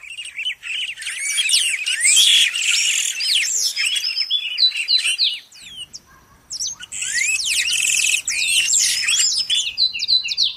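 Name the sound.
birds chirping and singing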